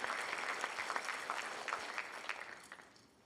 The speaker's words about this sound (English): Can you give Jesus the truth a little hand clap of praise this morning?